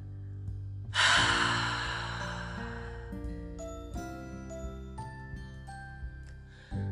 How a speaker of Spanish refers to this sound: Inhala mientras cuento hasta 3, sostén y luego exhala sacando todo el aire por la boca.